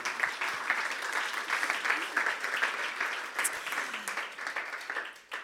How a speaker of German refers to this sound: Also dicken Applaus für Katrin.